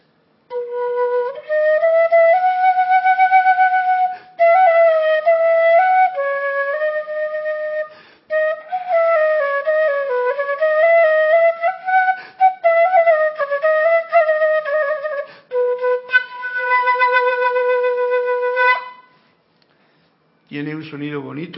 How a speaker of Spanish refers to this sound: Esto se llama undisi, la encontré hace poquito. Es una flauta china, muy graciosa. Y vamos a ver cómo suena esta. Esta es como más sencilla.